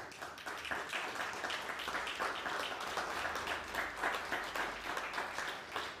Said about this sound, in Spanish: Denle un fuerte aplauso a Hashem.